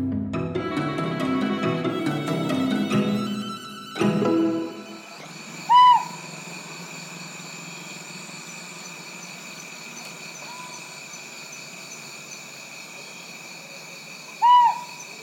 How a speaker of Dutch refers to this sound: We zijn op Lombok. En dit is een uiltje wat ontdekt is omdat er eh, mensen, eh, biologen, daar eh, begin jaren 2000 rondliepen om iets anders te doen. En ze dachten, hé, hey, een oh, apart geluid. Het is ook een mooi geluid.